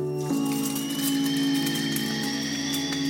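Kitchen sounds: a steady electrical hum like an appliance running, its pitch shifting slightly just after it starts, then droning evenly with a faint high whine and no voices.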